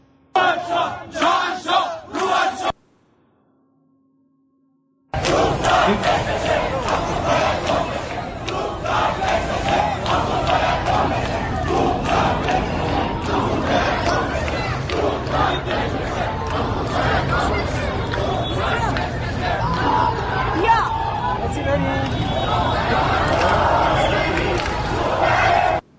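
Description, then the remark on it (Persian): A large crowd chants slogans in unison, loud and dense with shouting voices. A brief burst of chanting comes first, then a short silence, then sustained rhythmic chanting for about twenty seconds. “ولی جالبه که بعضی آخه میگن مردم میترسن من میخوام بدونم اونایی که این حرف رو میزنن خودشون جرأت دارن توی اون خفقان برن و این این شعار رو بدن یا نه”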